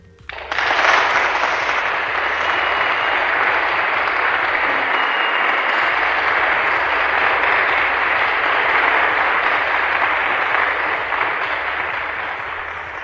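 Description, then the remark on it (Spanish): Sustained audience applause after a poetry recitation, a dense, steady crackle of many hands clapping at full strength for about twelve seconds before tapering slightly at the end, with no voices heard. “Aplausos, por favor.”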